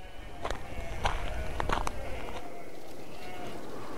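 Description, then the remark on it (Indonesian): A young ewe, not yet mated with a ram, bleats several times in quick succession, short wavering calls clustered in the first two seconds, followed by a steady hiss of background noise. “segeralah Ibnu Mas'ud mengambil domba betina muda yang dimaksud dan menghadirkannya ke depan dua pria dewasa tersebut”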